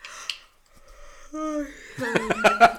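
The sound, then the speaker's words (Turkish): A 36-year-old person yawns aloud at 10:30, a drawn-out voiced groan that rises and then breaks into a few shaky, pulsing bursts near the end. “Esnedim valla. Çünkü saat 10.30 oldu.”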